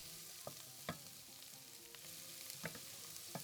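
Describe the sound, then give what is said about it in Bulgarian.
A sizzling mixture with crushed chili being stirred in a pan while cooking the dish called "bezrazborna smes": a steady hiss of frying runs throughout, punctuated by a few sharp scraping clicks of a utensil against the pan. No voices. “Почти на финала сме. Разбърквам добре.”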